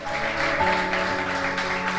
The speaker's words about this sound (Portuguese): Aplauda mesmo a ele.